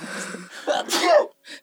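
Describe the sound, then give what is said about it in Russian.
A single loud sneeze: a short voiced intake builds into a sharp, breathy burst, followed by a brief soft sound after a pause. “Будьте здоровы.”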